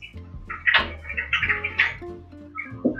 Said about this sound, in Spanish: Perdón por el sonido del pájaro.